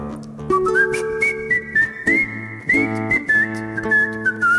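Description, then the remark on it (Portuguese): A person whistles a lilting folk tune, the clear high melody gliding and ornamented over a steady acoustic guitar accompaniment, fairly loud, with no talking. “E eu gosto de tocar ela e gosto de fazer ela meio no, no floreio, no bico também, né, Tio?”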